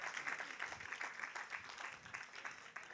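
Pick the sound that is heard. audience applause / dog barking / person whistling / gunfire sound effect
audience applause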